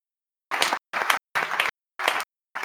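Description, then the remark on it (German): Applause from an audience following a short thank-you speech comes in five short, loud bursts of dense clapping, each cut off abruptly by brief silence, giving a choppy, stuttering rhythm with no voices. “Applaus, war absolut wunderschön.”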